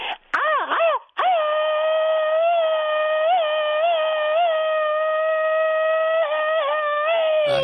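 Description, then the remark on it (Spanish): A young woman's 'machine-gun scream': a few short, wavering cries, then one long, high-pitched scream held almost steady for about six seconds, loud, with no talking over it. “Y el grito ametralladora de la chica sexy.”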